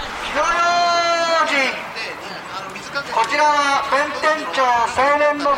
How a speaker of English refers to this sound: listening to the sounds of the year end fire watch in the Tokyo neighborhood of Bentencho. On the eve of the new year, a group of volunteers patrols Bentencho, clapping together wood blocks and shouting the warning Hino Yojin, be careful with fire.